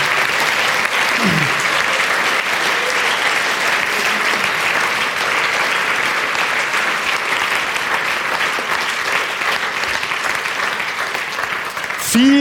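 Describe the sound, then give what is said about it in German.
An audience applauds the volunteers working on the technology and with the children, steadily for about twelve seconds, a dense, even wash of many hands clapping at a constant level with no voices or cheers standing out. “Gebt doch denen einfach mal einen Applaus, wo einfach sich so einsetzen auch.”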